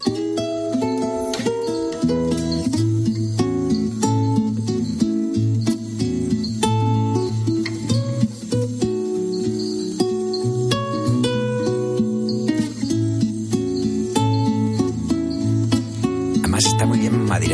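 A song plays at full volume throughout, with a dense band arrangement, a steady low bass line and crisp percussive hits keeping a regular rhythm, close and clear with no talking over it.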